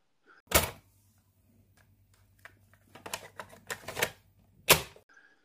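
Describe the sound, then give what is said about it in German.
Mechanical clicks and clunks: a sharp clack, a low steady hum, a cluster of rattling taps, then a final loud snap, like a second cassette being pushed into a deck and the lid shutting. “Und jetzt legen wir die zweite Kassette ein, Track 2.”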